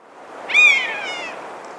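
A single drawn-out, mewing call of a common buzzard, a high plaintive cry that slides slightly downward and fades over under a second, heard alone against a faint outdoor background.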